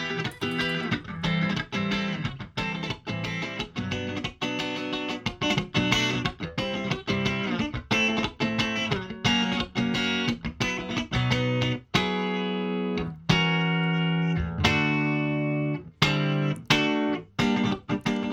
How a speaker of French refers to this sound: on se fait plaisir, on écoute euh, les deux guitares en solo.